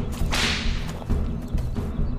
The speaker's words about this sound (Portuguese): eu sei que isso parece um tanto gracioso, mas vejam só, além do chicote aumentar o meu alcance, ele ainda dá uma vantagem tática, exatamente porque os outros ficam distraídos por ser uma arma tão rara.